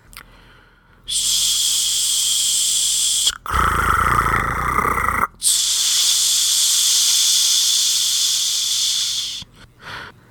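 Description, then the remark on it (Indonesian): Steady static from an old radio on a wooden table beside a bed hisses loudly for several seconds after midnight, briefly shifting to a rougher, lower crackling rush in the middle before the bright hiss returns and cuts off near the end. “Tangannya tengah bergerak ingin menyingkap kelambu itu ketika matanya tiba-tiba tertuju pada radio tua di atas meja kayu di sebelah ranjang yang hanya mengeluarkan suara desis dan gemersak.”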